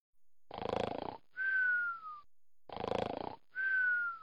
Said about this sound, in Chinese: 那一晚，每一个人都喝多了，满军营都是此起彼伏的呼噜声。